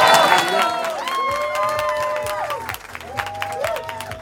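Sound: audience applause and cheering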